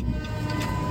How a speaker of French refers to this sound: Oh là là, il y a le train qui passe.